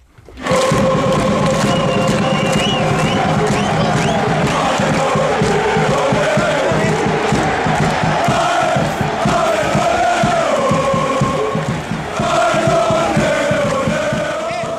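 A large crowd of football fans chants and sings together in a loud, continuous roar, with rising and falling melodic lines carried by many voices and steady rhythmic pulses underneath throughout.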